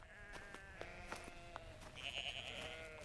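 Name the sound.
sheep bleating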